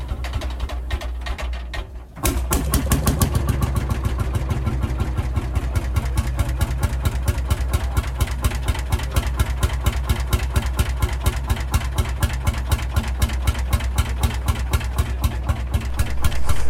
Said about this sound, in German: Man lacht zwar darüber heute, aber man muss eins bedenken, der Schlepper ist über 100 Jahre alt und im Vergleich zu den Pferden war das schon eine Revolution.